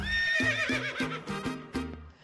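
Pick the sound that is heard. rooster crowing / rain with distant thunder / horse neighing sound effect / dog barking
horse neighing sound effect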